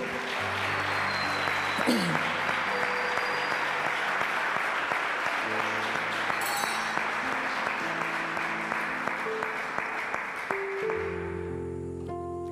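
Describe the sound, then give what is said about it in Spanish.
A crowd claps loudly for the Lord, a steady, dense wash of hand claps lasting about eleven seconds, with some sustained tones underneath, before the applause tapers off near the end. “Si va a aplaudir al Señor, vamos, hágalo fuerte.”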